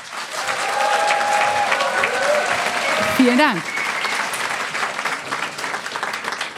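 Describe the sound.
An audience applauds steadily, a dense wash of many hands clapping that rises quickly and holds for several seconds, while a voice speaks briefly over it midway through.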